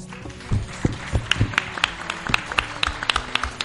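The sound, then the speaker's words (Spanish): Steady audience applause for the town council fills the space, many hands clapping at a quick, uneven rhythm with sharp individual claps standing out over a dense, moderately loud wash. “un fuerte aplauso para el ayuntamiento o el ayuntamiento de esa pobla que ha portado muy bien en nosotros.”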